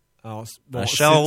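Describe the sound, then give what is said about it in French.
A voice imitates a ringing telephone with mouth sounds: a short buzzy tone, a brief hiss, then a longer, louder warbling ring after a short pause. “c'est un bruit de bouche qui fait un téléphone, mais on reconnaît le téléphone”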